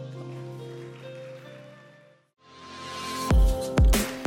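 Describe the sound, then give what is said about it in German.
Soft sustained music fades out, then an audience breaks into steady applause for God that swells and grows louder, with a couple of heavy thumps near the end. “Lass uns Gott einen Applaus geben.”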